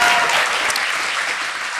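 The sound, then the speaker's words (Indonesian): An audience claps together for Mongol in a dense, steady wash of applause, loud and sustained for the whole moment with no breaks or individual claps standing out. “Ya, saya uh, boleh tepuk tangan dulu ya, ya untuk Mongol ya.”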